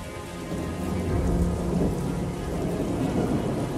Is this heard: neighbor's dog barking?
no